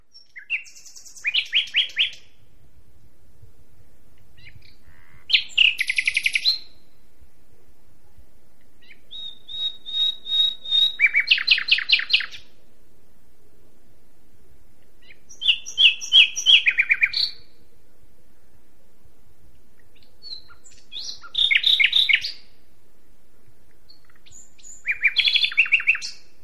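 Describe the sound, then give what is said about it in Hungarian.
A common nightingale (Luscinia megarhynchos) sings in separate phrases spaced a few seconds apart, mixing sharp whistles with rapid repeated trills, clear against a quiet background with no other voices. “Fülemüle (Luscinia megarhynchos)”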